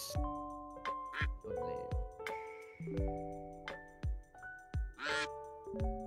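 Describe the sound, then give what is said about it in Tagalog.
Loud, nasal duck quacks come in short bursts, repeated several times over a bright, tonal musical backing with thumping low notes; no one speaks. “Mukhang tinola bibi, lulutuin ah.”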